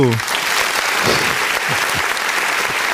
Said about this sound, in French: Veuillez applaudir le plus beau, le plus chaud, c'est